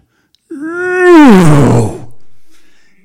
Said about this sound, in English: Next door in the game park, the king of the jungle roared.